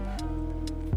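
A ticking countdown rhythm drives quiz-style music, with steady clock-like ticks over sustained synth tones, ending in a low thump.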